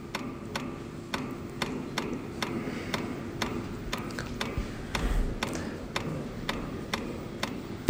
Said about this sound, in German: Das Ticken äh, des Geigerzählers ist immer noch ungefähr stetig.